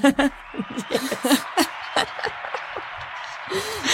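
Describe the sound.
A steady patter of applause hisses underneath people laughing and chattering, with sharp bursts of laughter over the clapping through the first half before it settles back under the voices.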